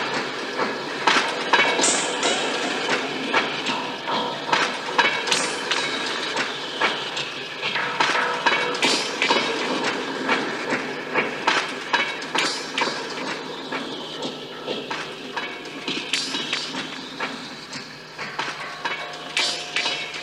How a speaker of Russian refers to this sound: На этот раз из стука колес железнодорожной дрезины.